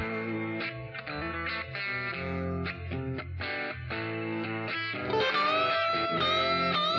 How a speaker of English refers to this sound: Oh, oh, lots of reverb.